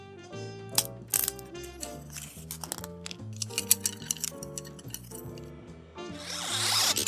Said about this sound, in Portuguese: Para você que chutou que eram chopsticks, ou barulhos de palitinhos de comida chinesa ou japonesa, você acertou.